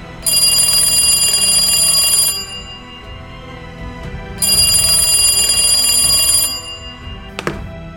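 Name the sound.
telephone ringing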